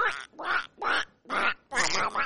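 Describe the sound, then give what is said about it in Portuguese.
A person imitates Donald Duck (Pato Donald) with five raspy, buzzing quack-like bursts in quick succession, fairly loud, the last two running together. “Tutorial, como faz pra imitar o Pato Donald?”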